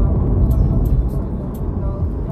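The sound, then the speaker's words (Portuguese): Steady road rumble from inside a moving car driving behind a truck that is throwing up small stones, the driver swerving to avoid it; a low continuous drone with a few faint high ticks scattered over it; no one speaks. “No momento tem um caminhão na minha frente jogando pedrinhas. Eu tô desviando dele.”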